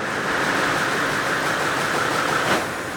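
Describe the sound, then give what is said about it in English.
Loud, steady clatter and hum of a weaving loom running, with a brief clunk near the end as the loom stops. No voices. “That's the sound of the loom stopping which usually means that there is a broken end or a broken pick, which is a weft thread, and the weaver will then start correcting that issue before we continue to weave.”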